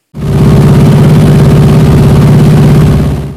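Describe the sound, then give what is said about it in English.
Loud, steady drone of a propeller airplane engine in flight hundreds of feet up, a deep throbbing hum with a rough buzzing edge that holds constant throughout, unbroken, with no voices. “I also took a recorder along and have an excellent recording of the plane's.”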